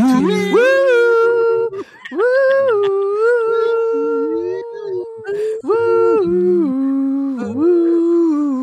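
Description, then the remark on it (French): Voices loudly hum and croon a stepping, sustained melody in unison, imitating a television series theme tune, with wavering held notes and brief breaks between phrases, continuous throughout. “Et là, c'est le générique. On fait tous le même bruit.”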